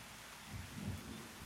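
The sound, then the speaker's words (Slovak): A thunderstorm with steady rain hissing across all frequencies and a low rumble of thunder swelling briefly in the middle, with no voices. “Počúvať zvuky búrky a vedieť, že som v bezpečí.”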